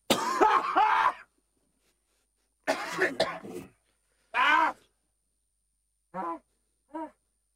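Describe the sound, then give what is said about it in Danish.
Several harsh bursts of coughing and throat clearing with pauses between them, followed by two short voiced grunts. “Tryk på hosteknap!”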